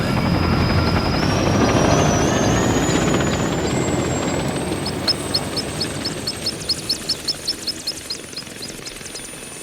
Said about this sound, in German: Der Hubschrauber erhob sich und flog davon in Richtung Abendsonne.